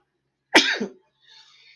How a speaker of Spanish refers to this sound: Disculpe usted. Fue estornudo sin COVID.